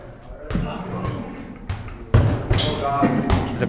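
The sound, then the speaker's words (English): A rugby ball is kicked at targets several times, each strike a solid thump landing at uneven intervals, with faint voices and background bustle between the kicks. “What do I do? Just kick? Yeah, yeah. It's literally yeah. You'll see a target. Oh, sorry. I hit that target.”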